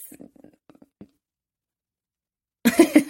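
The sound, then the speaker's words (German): A loud burst of coughing erupts near the end, preceded by a few faint, scattered throat sounds and a stretch of silence. “gerade am Hust.”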